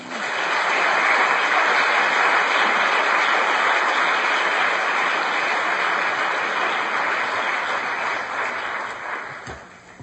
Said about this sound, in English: Let's give all of our speakers a round of applause.